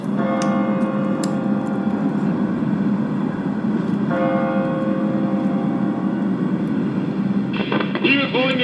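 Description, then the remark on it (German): A large church bell tolls twice, about four seconds apart, striking the hour, each deep strike ringing out in a long, humming decay over a steady wash of crowd noise and murmured voices. “Und nun die große Glocke, die die Anzahl der Stunden verkündet.”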